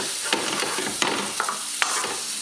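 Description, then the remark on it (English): Bacon sizzles steadily in a frying pan, a dense crackling hiss, with a few sharp scrapes or clicks as the bacon is pulled apart with a fork and spatula and the rind taken off. No one speaks. “I'm going to pull the bacon apart and take the rind off.”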